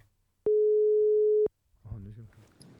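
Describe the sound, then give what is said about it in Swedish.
A single steady telephone ringing tone sounds for about a second, clear and loud like over a phone line, then after a short pause people begin talking. “Jag ringer, testar och ringer här.”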